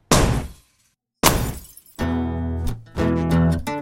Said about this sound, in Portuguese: Papai pegou uma marreta e esmagou o capô do carro.